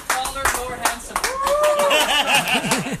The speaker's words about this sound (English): and here's the crowd of applauding.